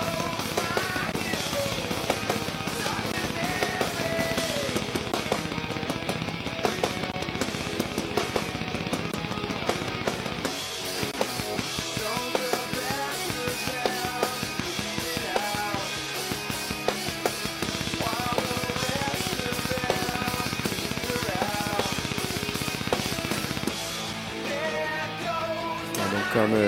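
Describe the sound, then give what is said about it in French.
An extremely fast, machine-gun-like bass drum barrage, played with a triple bass drum pedal billed as the world's first, drives a loud, dense rock track, the kicks rattling on almost continuously under distorted guitars with only brief shifts in texture. “Il a créé la première triple pédale au monde.”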